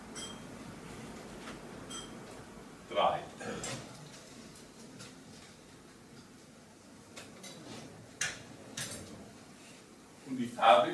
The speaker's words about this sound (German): Rick versenkt zwei Stück Zucker in das erste Glas, hält ein weiteres Stück Zucker hoch und schaut fragend zu John, welcher drei Finger hebt.